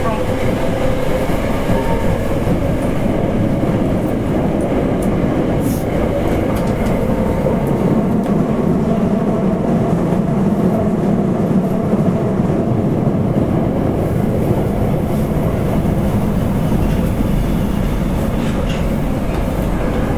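A Kita-Osaka Kyuko 8000 series subway train runs between stations on the route from Dobutsuen-mae to Shin-Osaka, with a steady, loud low rumble and roar, overlaid by faint rhythmic rattling and clacking of the wheels, with no one speaking.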